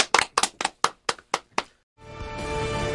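Seven crisp, evenly spaced handclaps ring out alone in a steady rhythm, sending off a guest at the end of a show segment, then a brief silence before music begins.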